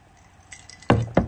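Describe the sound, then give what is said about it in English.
Two sharp clinks of drinking glasses in a toast ring out a fraction of a second apart, after a few faint lighter taps, with no talking; the raised glass holds Four Roses bourbon. “Trisha, to you, I raise my glass.”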